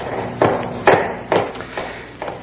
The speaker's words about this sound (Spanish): Déjame ir a ver quién llama en la puerta de la calle.